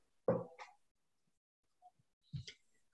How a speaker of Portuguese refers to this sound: Ai, cachorrinho! cachorrinho.